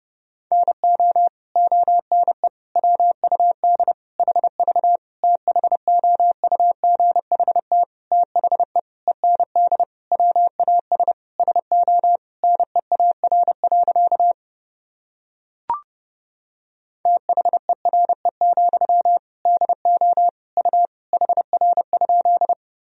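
Rapid Morse code beeps at a single steady pitch, keyed quickly in dots and dashes at 30 words per minute, with a short pause and a faint click partway through before the sending resumes. No voices.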